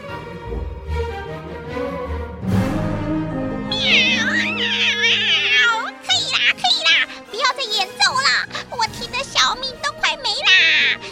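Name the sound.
cat meowing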